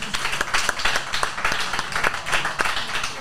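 A small audience claps steadily for a guest, a dense patter of many overlapping hand claps with sharp, bright transients, sustained at even loudness throughout without anyone speaking.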